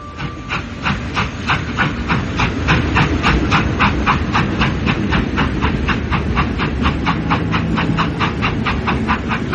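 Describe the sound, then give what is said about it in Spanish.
A train carrying passengers in a third-class carriage rolls steadily along the rails, its wheels clicking in a fast, even rhythm over a deep continuous rumble and a faint hiss, with no voices. “y en un coche de tercera se fueron los dos a la ciudad triste y lejana de Sindulfo.”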